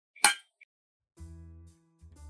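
Glasses clink together once in a toast, bright, with a faint second tinkle a moment later, followed by a low, steady humming drone.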